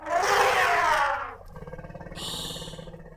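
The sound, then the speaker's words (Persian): A loud, brassy elephant trumpet in a jungle blasts and fades over about a second, followed by a low rumbling growl with a shrill, higher call rising over it near the end. “صدای فیله یه فیل سلام آقا فیله سلام آقا فیل خورتون دراز”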